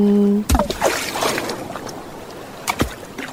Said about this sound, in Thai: สียงคลื่นที่หาดไซแก้ว เข้าเครื่องแปลภาษาเขาคงจะบอกเราว่า มาเที่ยวที่นี่สิ หาดทรายขาวน้ำทะเลใสรอคุณอยู่